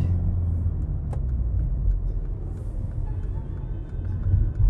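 Steady car engine rumble from a moving vehicle, a deep continuous drone with road noise that holds level throughout and swells slightly near the end, with no voices.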